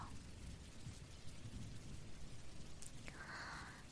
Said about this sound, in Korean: 그렇게 빗소리 사이에는 여러 가지 소리가 섞여 있고, 그리고 또 숨겨져 있답니다.